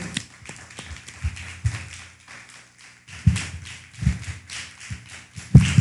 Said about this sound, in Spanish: Bueno, pues un fuerte aplauso.